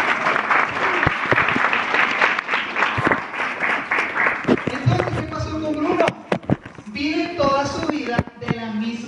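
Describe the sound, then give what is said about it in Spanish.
An audience bursts into loud, sustained applause at the speaker's request, a dense rush of many hands clapping together; it thins after a few seconds as a man's voice starts talking over the scattered remaining claps. “Un aplauso, por favor.”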